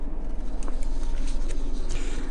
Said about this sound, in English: And uh, oh, the, the helicopter's coming in